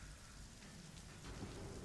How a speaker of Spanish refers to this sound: La llovizna nos encontró en el camino, pero no nos importaba. Estábamos acostumbrados a este clima.